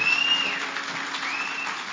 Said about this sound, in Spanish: Así que yo quisiera que comenzáramos dándole un aplauso fuerte a Jesús. No, no, no, no, no. Fuerte, fuerte, fuerte, fuerte, fuerte. Tu mejor aplauso. Tu mejor aplauso.